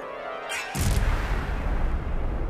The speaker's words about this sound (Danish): Men da greb Lukas ind og hamrede stormesterstaven i dommerbordet.